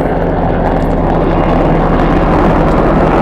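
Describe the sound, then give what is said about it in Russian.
A military helicopter roars overhead, its loud, steady engine drone and low rotor throb filling the air continuously with no pauses or voices. “Вот в этот самый момент и полетел надо мной военный вертолет, напоминая о реальности жизни.”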